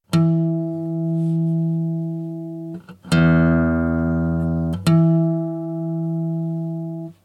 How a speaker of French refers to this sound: Exemple, si je fais sonner ma corde de mi grave à vide, j'obtiens ceci. Et si mon doigt effleure la corde exactement à la moitié de sa course, au-dessus de la douzième case, j'entends ceci.